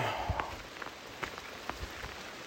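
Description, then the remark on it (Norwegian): Light rain patters steadily on a surface outdoors in typical autumn weather, with scattered sharper drops tapping irregularly over a soft, continuous hiss. “Som dere hører nå, så er det litt regn, og dette er jo typisk eh, høstvær det,”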